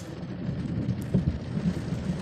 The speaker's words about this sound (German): Richtig ordentlich sogar. Also richtig viel Regen und richtig viel Gewitter.